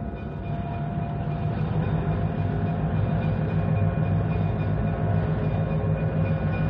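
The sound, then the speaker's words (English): An uncoupled locomotive engine being taken back to the yards rumbles steadily on the rails, a deep, continuous mechanical drone with faint whining tones above it and no voices, holding an even loudness throughout. “Take the engine back to the yards.”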